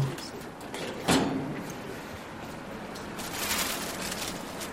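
A sliding storage drawer, one of rows of drawers holding a shoe collection, is pulled open with a sudden scraping rumble, followed by a longer, rougher rolling slide a moment later.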